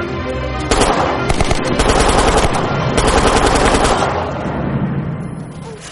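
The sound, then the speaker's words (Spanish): Loud bursts of gunfire crack out in several rapid volleys over a low rumble as a suspect shoots at a lieutenant, the shots coming in quick clusters before the sound trails off and fades. “El sospechoso dispara al teniente.”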